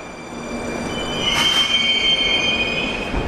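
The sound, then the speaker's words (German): Moscow metro train wheels squeal steadily against the rails at a Circle Line station in a long, high-pitched screech, with a low rumble of the train underneath, loud, swelling slightly midway through. “Это в первую очередь станция, станция кольцевой ветки метро.”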